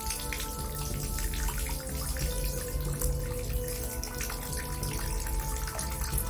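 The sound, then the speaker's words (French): Tap water runs steadily into a bathtub filling for a bath, a continuous rushing and splashing with even loudness throughout and no voices. “Elle met le drap dans son bac à linge sale et se fait couler un bain.”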